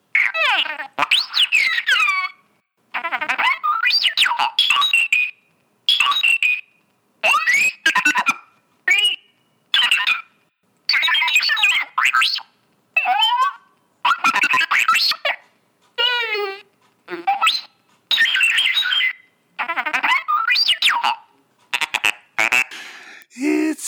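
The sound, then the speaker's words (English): R2-D2's battle-damaged electronic beeps and warbling chirps come in choppy, glitchy bursts separated by short silences. They are fairly loud, with garbled, broken-sounding stretches like a damaged machine. “all right here we go this one's exciting r2d2 battle damage”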